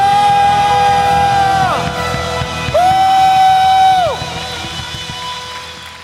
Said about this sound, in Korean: 박수 승리 함성